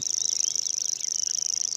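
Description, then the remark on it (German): A grasshopper warbler's reeling song in a meadow in Maisach: a continuous, high-pitched mechanical trill like a cricket, steady and unbroken throughout, with faint other birdsong underneath. “Es ist eigentlich fast wie ein Grillenzirpen. Also es, man erkennt es kaum als Vogelruf. Es ist so ein Schwirlen eben, ein, ein hoher, langer Ton.”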